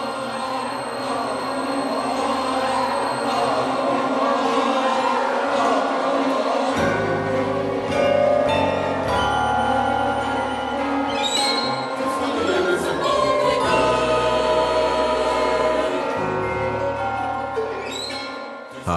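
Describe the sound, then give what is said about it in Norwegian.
Arne Norheim's modern composed setting of the medieval ballad Draumkvedet: dense, dissonant layers of sustained tones at a steady, loud level, with a deep droning bass entering partway through. There is no talking. “Her eh, hører vi litt av Arne Norheims utgave av Draumkvedet.”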